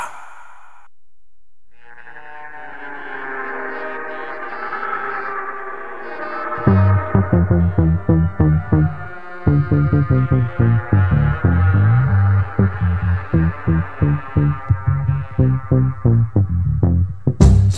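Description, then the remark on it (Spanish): A radio show's favorite jingle (cortina) opens with a swelling, sustained melodic chord, then a steady, punchy bass-driven beat kicks in and pulses loudly to the end, with no voices. “Suena la cortina favorita de Nike. Sí. Es un tema para mover la cabeza”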